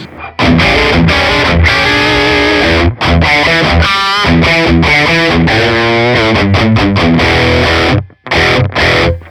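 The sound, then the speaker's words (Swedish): A driven, slightly distorted electric guitar through a warm tweed tube amplifier called Fords Blues, played as a loud continuous riff with chords and single-note runs, with the reverb turned down and no voices. “Här finns det någon tweedstärkare som heter Fords Blues. Slå av lite reverb, precis.”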